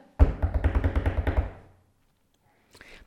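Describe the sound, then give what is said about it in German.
A quick drumroll tapped out on a hard surface: about a dozen rapid, loud, dull thumps in an even rhythm for over a second, fading out, then a brief faint rustle. “Trommelwirbel, warte.”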